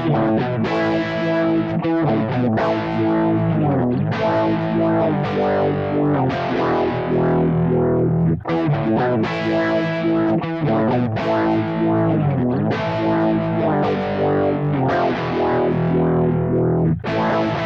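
A loud hard rock passage driven by heavily distorted electric guitar, a dense, sustained wall of sound repeating a riff in roughly two-second phrases with brief breaks, and no singing.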